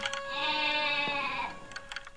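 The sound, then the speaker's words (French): A goat lets out one long, drawn-out bleat, wavering and plaintive, fairly clear, then trails off into faint background noise. “C'était pitié de la voir tout le jour sur sa longe, la tête tournée du côté de la montagne, la narine ouverte, en faisant Mais tristement.”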